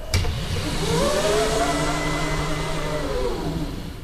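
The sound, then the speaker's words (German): A steady electric motor whirs for several seconds as a motorized bed in a test apartment is pulled up on straps to just under the ceiling, turning the bedroom into a living room within five seconds; its hum bends slightly upward in pitch then settles, with no voices. “So klingt es, wenn sich innerhalb von fünf Sekunden in der Testwohnung das Schlafzimmer in ein Wohnzimmer verwandelt.”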